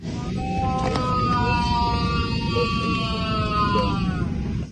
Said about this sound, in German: Also es ist jetzt vielleicht ein bisschen schwer zu identifizieren, aber da hört man Nawalny tatsächlich schreien während des Fluges. Und wenn man das weiß, finde ich, kriegt man da tatsächlich so ein bisschen Gänsehaut, wenn man das hört.